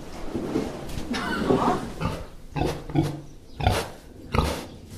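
Two large pink pigs, lying down, grunt repeatedly, deep rough bursts in an irregular rhythm, with a brief laugh mixed in near the start.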